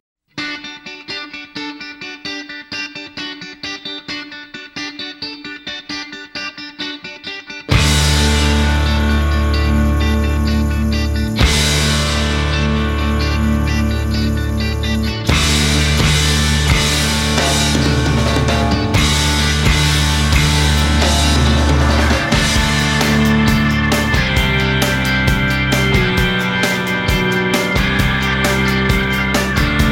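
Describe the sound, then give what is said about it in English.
The theme from the film School of Rock: a rock tune opens with a lone effects-laden guitar for several seconds, then a loud full band crashes in with distorted guitars, heavy bass and drums driving on steadily. “And we're just going to walk you out here with the theme from the School of Rock.”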